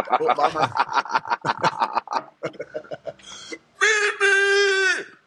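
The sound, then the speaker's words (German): A voice imitates the legendary scream of a handball coach: a few seconds of rapid vocal bursts and chuckling, then near the end a loud, drawn-out scream, strained and harmonic, held for about a second and a half. “das war der legendäre Schrei.”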